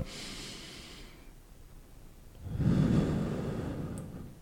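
Slow, deliberate breathing: a long airy inhale, a short pause, then a longer, heavier exhale that rushes out through the nose. No talking.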